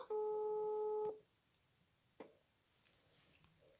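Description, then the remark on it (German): A single steady electronic phone ringing tone, from a call being placed to a mobile phone, sounds loudly for about a second, then cuts off, followed by a brief click and faint line hiss. “Ich rufe sie direkt an.”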